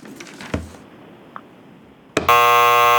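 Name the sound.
quiz wrong-answer buzzer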